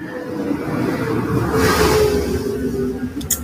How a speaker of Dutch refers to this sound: Wat is dat voor een geluid? Ik hou het niet meer. Ja, er reed een tractor hier langs.